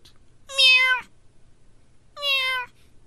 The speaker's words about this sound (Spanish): Y en eso llega el gatito, güey. Oh, cute.